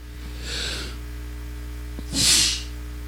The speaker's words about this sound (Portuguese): Nossa, que meu céu da boca tá coçando agora. Chega aos 40 minutos eu começo a espirrar.